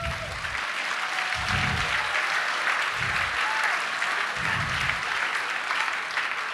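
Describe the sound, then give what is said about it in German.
An audience applauds steadily for spoken-word author and trombonist Gerhard Meister, a dense wash of clapping from many hands that stays loud and even throughout, with no voices rising above it. “Bitte einen Applaus für den Gerhard Meister.”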